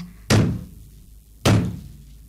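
Two heavy knocks on a wooden door, as Ubieta knocks on the door of hell in the story, slow and evenly spaced about a second apart, each a loud thud with a short ringing decay, and no voices.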